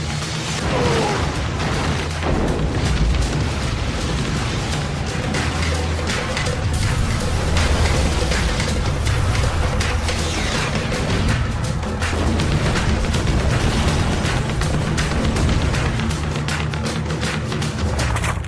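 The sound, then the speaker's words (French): A loud, dense intro theme plays for about eighteen seconds, packed with booming, explosive bursts and whooshing action-style effects, with no one speaking over it. “voilà, générique, c'est tout.”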